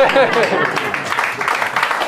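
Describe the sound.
A group of people clapping in a dense, steady patter of overlapping claps, with murmuring voices mixed underneath throughout the short burst.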